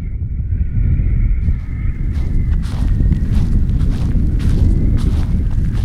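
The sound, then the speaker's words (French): Wind buffets the microphone on one of the university's synthetic sports pitches before the first match, with no rain yet: a loud, continuous low rumble with gusty swells, a faint thin whistle early on and scattered soft thuds; no one speaks. “La pluie se fait attendre, mais pas le vent.”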